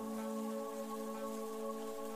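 Steady, heavy rain hisses continuously for a couple of seconds, with a sustained low humming drone underneath and no one speaking.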